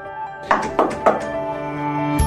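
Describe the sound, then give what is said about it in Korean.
Three evenly spaced, solid knocks on a door over a steady background hum, followed by a single sharper thump a moment later, in a JTBC news report on hearing assistance dogs for deaf people. “두 살 때 고열로 청각을 잃은 뒤 불이나 대피하라는 방송이 나와도 이렇게 누군가 문을 두들겨도 듣지 못합니다.”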